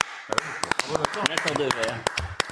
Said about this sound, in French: Et je voudrais qu'on l'applaudisse.